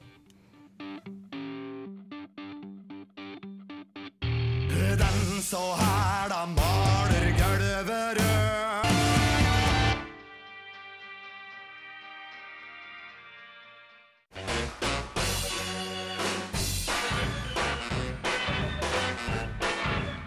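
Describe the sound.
A rock song plays loud on the radio, on Radio Revolt, with heavy distorted guitars and sung vocals. It moves through a choppy intro, a crashing full-band section, a brief quieter break, then surges back in.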